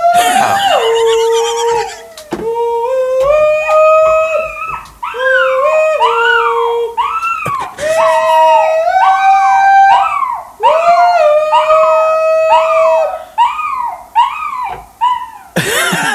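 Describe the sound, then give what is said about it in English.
A three-legged dog named Percy howls loudly in long, wavering, sliding tones, breaking into repeated yodeling cries with brief pauses between them, with no talking over it. “he has two main uh, hobbies that he likes to do, and that's holler and catch wharf rats.”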